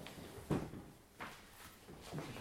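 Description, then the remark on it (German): Faint creaking and shifting of furniture as someone stands up, coming in three soft, brief bursts spread over a couple of seconds, with no talking. “steht auf und wir. Knarzt ein bisschen.”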